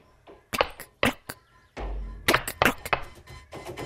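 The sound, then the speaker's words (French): Sharp, hard clacks of footsteps in wooden geta sandals near a small bridge over rice paddies, about a dozen in irregular bursts, some struck in quick pairs, with a brief low thud partway through and no voices. “J'étais presque arrivée au petit pont qui enjambe les rizières lorsque j'entendis derrière moi un claquement de guetta je me retournai.”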